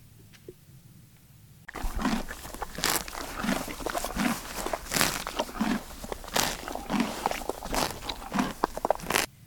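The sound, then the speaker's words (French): A horse eating, chewing with repeated crunching bites and grinding in a steady, uneven rhythm, loud and continuous after a brief quiet start. “Vous avez la réponse C'est un cheval qui mange.”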